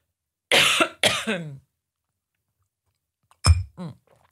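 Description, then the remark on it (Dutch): Dry coughing comes in a short fit: two harsh coughs back to back, a pause of silence, then another sharp cough with a throaty rasp trailing after it. “Soms, zou soms wel heel veel zo'n droog dingetje dat je echt denkt, no, it's not emotions”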